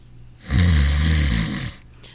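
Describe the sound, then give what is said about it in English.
A single loud, rumbling snore from a man in a hospital, lasting about a second, with a deep rattling low end and breathy noise on top, with no talking. “Oh, it's like being married to a steam shovel nurse.”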